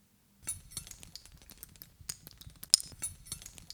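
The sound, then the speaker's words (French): Several metal rings worn on a person's fingers clinking and tapping against each other in quick, irregular bursts, fairly quiet, with one sharper bright clink near the end; no one speaks. “J'ai toujours des bagues, beaucoup de bagues, et je les enlève très peu, et ça fait des années que ça dure.”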